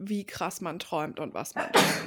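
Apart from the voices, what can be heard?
sneeze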